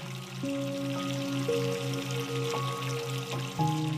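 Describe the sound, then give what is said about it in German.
Warm water runs steadily into a bathtub with a little bubble bath added, a continuous splashing pour, with soft sustained musical tones playing underneath throughout. “Du lässt warmes Wasser in die Wanne und gibst auch ein bisschen Schaumbad hinein.”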